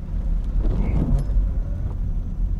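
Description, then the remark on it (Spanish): A small car drives along an empty road in the rain, trying to cross a border, its engine and tyres making a steady low rumble that holds throughout with no voices. “Lo último que esperarían es que alguien intentase cruzar la frontera en un utilitario.”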